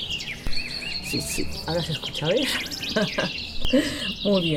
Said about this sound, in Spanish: Además se escucha un pajarito, no sé si lo escucharán nuestros oyentes de, atrás, ¿no? Sí, del patio, sí, Ajá. sí, Bonito, ¿no?